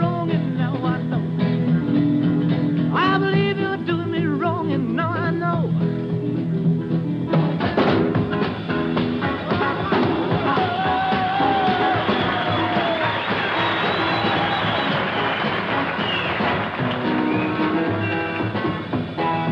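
A 1950s rock and roll song plays loud for the whole stretch, a dense full-band sound with a singer's voice riding over the driving rhythm, performed on the Stage Show on CBS.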